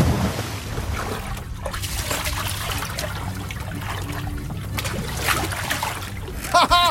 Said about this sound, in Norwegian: Det er å hoppe fra båten tidlig om morgenen, drikke kaffe etterpå. Og da, der ut med badestige. Sånn. Og så hoppe uti vannet.